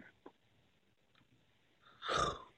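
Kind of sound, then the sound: human body sound, yawn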